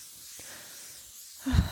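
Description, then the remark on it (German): A steady, soft hiss of thermal water misted from a nozzle onto burning, hot-feeling skin to calm it, sustained, ending with a brief low breathy puff. “Also ich setze jetzt unseren Feuerlöscher ein, das Thermalwasser.”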